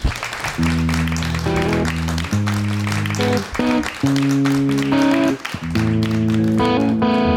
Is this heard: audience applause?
yes